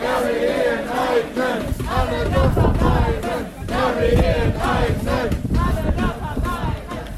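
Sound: protest crowd chanting slogans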